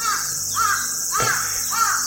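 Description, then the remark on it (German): Birds call loudly in a series of three harsh, cawing cries at an even pace, over a steady high-pitched hiss of background noise, with no one speaking. “Nee, oder sind es die Rotkehlchen? Das sind keine Heuschrecken, ne? Die kommen ja nicht aus Bäumen.”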